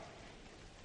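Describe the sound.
A dense, steady patter of four fingers tapping rapidly on a palm, imitating heavy rain. The continuous hiss-like drumming fills the short moment with no voices.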